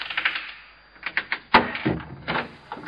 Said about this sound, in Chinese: 谁知这个时候，还没等他走到门口，那扇门便自己重重的关上了。